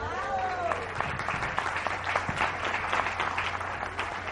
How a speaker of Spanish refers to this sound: ¿Ya les dieron un aplauso por eso, por ser abuelos?